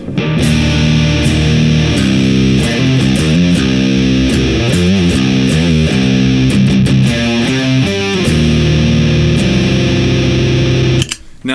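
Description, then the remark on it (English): An electric guitar played through an EarthQuaker Devices effects pedal into a Rev 412 amp with KT88 power tubes on a clean tone, pedal volume at 11 o'clock, sustain at 9 o'clock, tone maxed; loud and sustained, picked notes and chords ringing into each other in a steady melodic phrase that cuts off abruptly. “Uh, that being said, absolutely incredible pedal, and you're about to find out.”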